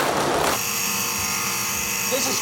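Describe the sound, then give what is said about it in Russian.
A skate sharpening machine in the Canadian team's locker room grinds steadily and throws sparks, a harsh rasping burst at the start settling into a continuous high-pitched motorized whine with gritty hiss, fairly loud throughout. “Раздевалка канадцев, машинка для заточки коньков высекает иск.”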